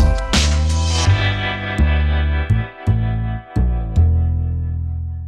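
Electronic music plays loudly and steadily on the radio station Furry FM, with sustained synth chords and deep bass that shift every second or so, punctuated by sharp transient hits. No voices are heard.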